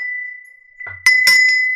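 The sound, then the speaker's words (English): A bright bell dings with a sustained ringing tone, then is struck again more loudly, the clanging hits layering over the lingering ring. “Ring the bell”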